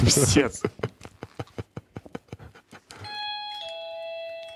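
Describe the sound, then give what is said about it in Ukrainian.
An electronic, battery-powered doorbell plays a chiming melody of sustained, steady tones that step between pitches, preceded by a quick run of rhythmic, clip-clop-like taps. The ringing is fairly loud. “І ми коментуємо футбол, і тут йобнутий дзвінок, а він дуже по-йобнутому звучить.”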